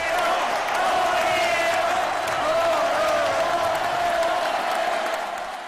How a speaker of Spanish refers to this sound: Esta faena es, al menos, de ovación.